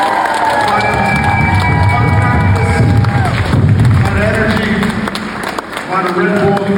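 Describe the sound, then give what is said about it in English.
A crowd claps and cheers steadily for a performer for several seconds, a dense wash of applause with whoops and raised voices layered over it, loud throughout before easing slightly near the end. “But again, let's give him another big round of applause.”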